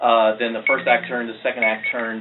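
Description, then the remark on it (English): A phone alarm beeps in short, repeated high tones, fairly quiet and partly buried under someone speaking steadily in the foreground. “and sorry, that's a alarm on my phone.”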